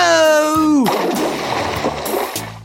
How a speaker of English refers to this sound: The fishermen did as they were told. Splash! Into the river they went. Geronimo!